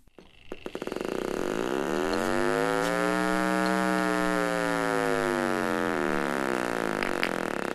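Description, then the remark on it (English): The alarm of a Fido explosives sniffer with explosives in the area: a few quick clicks give way to a loud, steady electronic drone with a rich stack of harmonics that rises slightly in pitch and then falls, sustained without pause until the end. “But when explosives are in the area, it sounds like this.”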